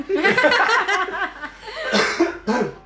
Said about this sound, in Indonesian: Udah batuk-batuk. Udah batuk-batuk tuh Bapak.